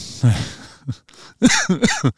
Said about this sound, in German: da huste ich gleich mal. Da gab es sofort für schlechte, unwitzige Sachen bestraft Gott mich immer sofort mit einem kleinen Husten. Schauen wir mal, wie oft es noch kommt.